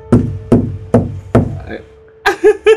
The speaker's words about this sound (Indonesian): ada yang ngegedor tapi dari dalam anjir gedornya gimana tuh bunyi ya biasa kayak gini aja nih